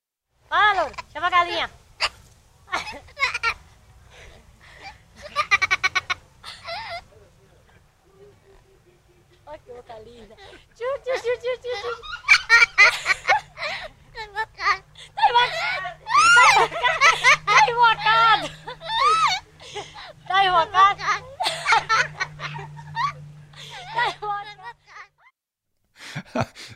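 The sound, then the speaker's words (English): A girl and a parrot trade laughs back and forth in Bahia, Brazil, in the 1970s, the bird imitating her giggles in lively bursts, with a short lull before a longer, busier run of laughter. “It's it's the sound of a of a parrot and a girl laughing,”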